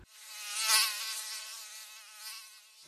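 A thin, high-pitched insect whine of mosquitoes and flies buzzing, swelling slightly louder early on and then holding steady for a few seconds with no other sounds.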